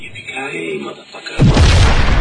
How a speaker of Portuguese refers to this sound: Se ejeta, gritando, explosão. Isso é duro de matar, né, cara? É Bruce Willis gritando com a mega explosão atrás dele, né, cara?